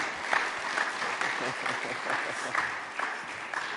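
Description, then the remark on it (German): Steady audience applause, a dense wash of many hands clapping at an even, sustained level for several seconds, with scattered sharper claps standing out. “Hey, heftigen Applaus für die nochmal und dann übergebe ich an dich.”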